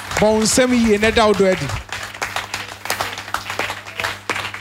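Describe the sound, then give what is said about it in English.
A church audience breaks into clapping to express love for God, a dense, uneven patter of many hands that carries on steadily after a loud voice at the start, with a low hum underneath. “Clap well so that you express your love.”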